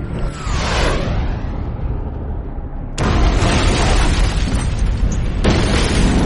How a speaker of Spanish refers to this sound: misil impactó el blanco a unos 200 metros por encima del suelo. El aparato estalló y la explosión hizo que se estrellara contra los árboles cercanos.